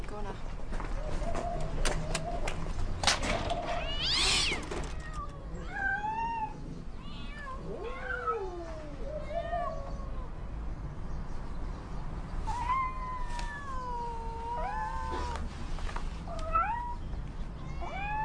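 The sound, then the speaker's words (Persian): Several injured cats, said to have broken legs, meow repeatedly in a room in short, rising and falling cries, some overlapping, with a brief louder bump early on and faint background noise throughout. “اینا چیه برداشتی آوردی؟ گربه چیه تو اتاقه؟”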